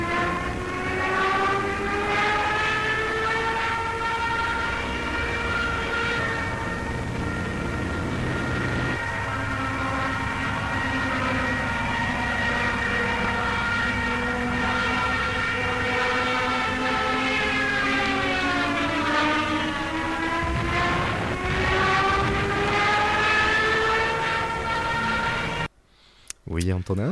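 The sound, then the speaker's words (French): A Junkers 87 Stuka dive siren, driven by a small propeller fitted only to make noise, wails loudly and steadily over a droning engine for almost half a minute. Its pitch slides down, then bends back up before cutting off abruptly. “Oui, euh, ben, on vient d'entendre le, doux bruit, comme, euh, comme diraient certains, du, Junkers 87, qui a, tant terrifié euh, ben, tant les civils espagnols que au début de la guerre, les, les civils et militaires français, belges, néerlandais,”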